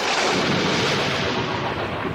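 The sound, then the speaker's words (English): A loud crash of thunder, heard while sailing off the coast of Cornwall in the Celtic Sea, rolls on as a dense, continuous, powerful roar, lasting the whole moment with no voices present. “Today, I'm sailing around the coast of Cornwall in the Celtic Sea, finding out how the weather affects our oceans and we're hoping for some stormy stuff.”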